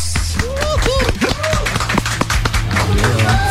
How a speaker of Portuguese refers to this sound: Senhoras e senhores, eu quero uma salva de palmas aí do outro lado do rádio, porque eles estão aqui. …!